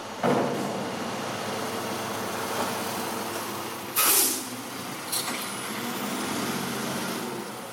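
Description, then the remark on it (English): A garbage truck rumbles steadily down a street in Sydney late at night, its engine droning, with a sharp air-brake hiss midway and a shorter hiss soon after. “Imagine you're on the back of a garbage truck winding its way down the streets of Sydney in the late hours of the night or the wee hours of the morning.”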